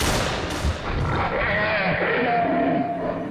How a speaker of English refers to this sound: I drew my automatic pistol and shot it under cover of thunder.